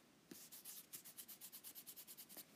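Foam hair rollers with a wire inside, rubbed, squeezed and bent, giving a quick, steady series of hissing, squeaky scrapes, about a dozen strokes in a regular rhythm, with no one talking.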